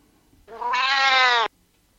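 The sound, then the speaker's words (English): A single drawn-out cat meow, about a second long, plays loudly from an Amazon Alexa smart speaker running a Cat Translator skill, translating the word "sausages". The background is quiet, with no talking around it. “Alexa, open Cat Translator.”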